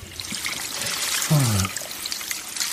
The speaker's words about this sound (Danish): prøver jeg lige med vandet, så ser jeg mm. lige, om det skal være varmere og koldere. Det er fint.